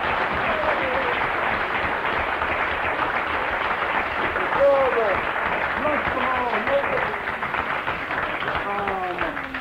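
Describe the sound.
A large audience applauds steadily for several seconds, a dense wash of clapping with scattered cheers and voices rising through it.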